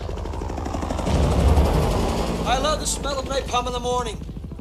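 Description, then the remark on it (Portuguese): Steady rapid thumping of helicopter rotors mixed with bursts of gunfire, recorded during the Vietnam War, over which a man's voice speaks in broken, radio-like phrases during the second half. “Mas o objetivo aqui é muito mais documental, então eu resisti à tentação e tudo que você escutar aqui realmente foi gravado lá na Guerra do Vietnã.”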